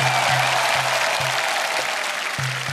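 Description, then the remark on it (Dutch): A large crowd applauds steadily and loudly on the central square of Zagreb, Croatia, celebrating the country's entry into the European Union, with fireworks; dense clapping fills the whole stretch, with a low rumbling hum and a few faint thumps underneath. “Applaus en vuurwerk.”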